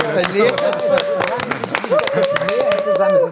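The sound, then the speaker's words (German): A thin, scattered round of applause from a small audience congratulating someone on turning 60: sparse, uneven hand claps running throughout, with a voice speaking or calling over them. “Was ist das für ein schäbiger, mitleidiger Applaus gewesen?”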